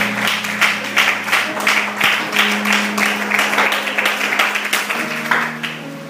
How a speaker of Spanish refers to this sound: ¿Por qué no le das un aplauso al Señor esta noche, por favor?